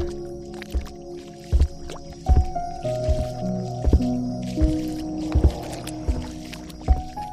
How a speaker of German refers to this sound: Die kleinen Dinos nutzen das natürlich fröhlich aus und rasen durch das Wasser, dass es nur so spritzt. Die Kleinen müssen inzwischen pitschnass sein.